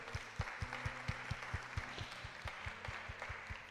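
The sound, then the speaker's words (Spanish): An audience applauds Christ for his work on the cross, steadily clapping in a dense wash of many hands, with a rhythmic low thumping pulse running underneath throughout. “¿Por qué no le dan un aplauso a Cristo por su obra en la cruz?”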